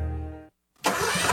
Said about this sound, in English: That's the sound of a day starting out right, and I hear it every time my new Toro Z Master Zero Turn Mower starts up.